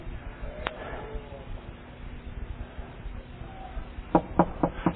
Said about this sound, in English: See, I ain't trying to break in, I'm just knocking.